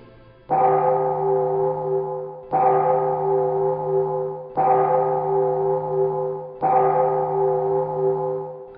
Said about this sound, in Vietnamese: Tiếng chuông chùa vẫn đều đặn ngân nga mỗi buổi hoàng hôn Như gọi tỉnh những ai còn lặng hụt trong đường danh nẻo lời